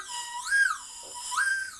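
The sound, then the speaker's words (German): A slide whistle blown twice through the top while its stem is pulled and moved, its pitch sweeping up and down in smooth glides, fairly loud, with no talking. “Ach so, man kann den Stiel rausziehen und wenn man oben reinpfeift und den Stiel bewegt, dann gibt es so verschiedene Töne, oder was?”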